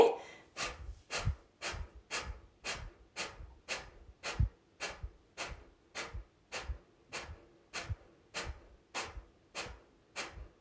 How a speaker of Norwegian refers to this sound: Så ved å trekke da magen raskt og hardt inn, så pumper vi ut gjennom, luft ut gjennom nesa. Så start med et innpust. Hører dere lyden? Og her bruker jeg bare magen til å dytte ut pusten.